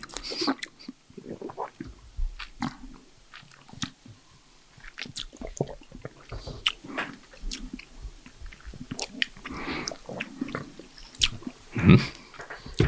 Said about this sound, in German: wir schmatzen hier so alle vor uns ja. hin, wundern uns über diesen Wein. Also wenn es still ist, ist es meistens gut.